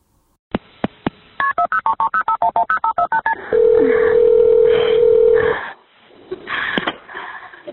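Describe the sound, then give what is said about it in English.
A few sharp clicks, then a quick, even run of about a dozen telephone keypad beeps as a woman dials 911, followed by a steady hum-like line tone for a couple of seconds and some faint muffled noise. “Ten times and then she called 911.”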